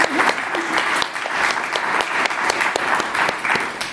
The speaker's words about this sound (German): Und ähm, ja, danke für die Spontanität von euch dreien. Und äh, das ist jetzt mal euer Applaus hier aus dem Publikum. Danke auch. Publikum.